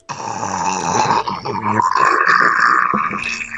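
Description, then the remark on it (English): A voice imitates loud snoring: one long, rasping, throaty snore drawn out for several seconds, steady, with no other talking. “my sound guy says he heard some snoring”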